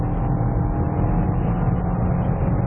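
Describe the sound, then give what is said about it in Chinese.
A car accelerating to 200 for a 200-to-zero braking test, with a steady, loud, low-pitched roar of engine and road noise and a faint droning hum underneath, continuous throughout with no voices. “好，下面我们加到两百来做一个两百到零的刹车”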